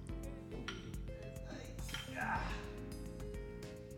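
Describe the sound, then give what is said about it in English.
Glasses clink together in a toast at the Japan Sake and Shochu Information Center in Tokyo, a bright ringing tap against a steady background of low murmuring voices and a humming, tonal backdrop. “Cheers to that.”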